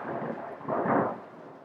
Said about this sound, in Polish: To chyba potwierdzenie moich słów, ten grzmot.